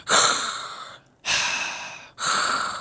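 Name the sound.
demonstrated breathing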